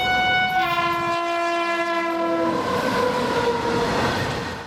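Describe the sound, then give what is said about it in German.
A train horn blares a long, steady chord for about two seconds, then fades into the rumble and clatter of a train moving through a busy railway station in Gujarat, western India, with no voices. “ein Bahnhof in Gujarat im Westen Indiens, dem Heimatstaat von Mahatma Gandhi”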